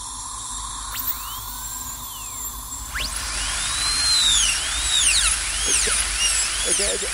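A high, whining dental drill sweeps up and down in pitch, revving repeatedly with sharp rising and falling whistles over a steady hiss, continuous, with faint background murmur.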